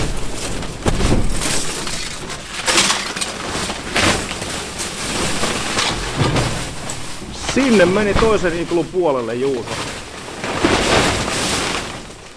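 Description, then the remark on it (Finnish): Loud crinkling and crackling of stiff 0.5 mm construction plastic film, taped with duct tape, being peeled off the mold of an ice dome in freezing weather, in repeated rustling bursts, with a person speaking briefly partway through. “Ja nyt jos me sinne kömmin, niin kuulette miltä tuo muotin irrotusääni kuulostaa.”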